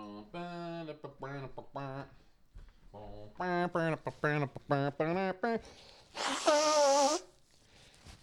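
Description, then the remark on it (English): Someone talks in short phrases, then gives one loud, honking nose blow lasting about a second, followed by quiet. “So we're closing in on showtime gonna blow my nose.”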